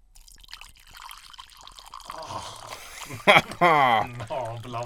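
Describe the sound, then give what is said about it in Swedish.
Mulled wine is poured in a soft trickle for a couple of seconds, then voices break in and talk over the fading splash. “Där hällde jag glögg på munnen på dig.”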